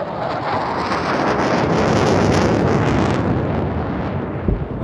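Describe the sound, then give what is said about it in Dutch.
A heavy, continuous rumbling roar of distant explosions from airstrikes on the outskirts of Raqqa fills the whole stretch, loud and broad like rolling thunder, with no voices present. “Je hoorde steeds in de verte ja, explosies en zo.”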